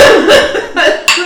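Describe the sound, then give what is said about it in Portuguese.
A sputtering cough in several quick, wet bursts from someone choking on Coca-Cola that nearly came out their nose, with a sharp final burst at the end. “Coca-Cola quase saiu pelo nariz.”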